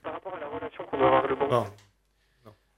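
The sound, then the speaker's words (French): A caller from Lyon speaks in a thin, muffled voice over a faulty telephone line during a call-in, then a brief crackling burst cuts in and the line goes dead silent, leaving only a faint blip near the end. “Ok, on a vraiment un souci avec le euh, euh, téléphone, euh, hein.”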